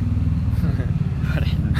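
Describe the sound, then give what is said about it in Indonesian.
A voice imitates an NMAX motorcycle engine revving in a mock advertisement: a loud, buzzing low drone that wavers in pitch and holds steadily for a couple of seconds. “iklan motor nmax enak nih panjang berisi duar eh, nmax”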